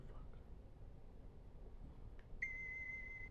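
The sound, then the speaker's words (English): A phone alarm tone suddenly sounds near the end, a steady, piercing electronic pitch that holds without a break over a low, rumbling background. “That's a fucking bitch ass alarm clock, bro.”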